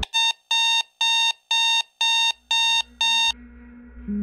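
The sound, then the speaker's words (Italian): An alarm clock rings with seven sharp, evenly spaced electronic beeps, loud, then stops, leaving a faint low hum and a soft rustle. “Non sai bene dove ti trovi ma a un certo punto un suono acuto ti ferisce le orecchie, il suono di una sveglia.”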